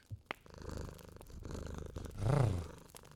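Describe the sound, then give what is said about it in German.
A cat purrs in a steady, rumbling rhythm that swells louder toward the end, after a brief click at the start, with no talking. “Schnurr.”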